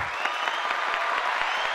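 A brief burst of thin, scattered fake applause, a handful of hands patting unevenly for under two seconds at moderate volume to welcome guests to a show, with no voices over it.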